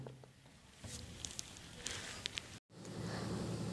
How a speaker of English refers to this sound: Moreover, in Bangalore it's raining dogs and cats.